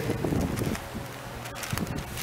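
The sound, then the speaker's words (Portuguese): Papery rustling and fluttering as an electric fan's airflow riffles through the pages of a Bible, a soft irregular flapping over a steady breathy whoosh, busiest at the start and then quieter. “Ventilador levando as folhas da Bíblia.”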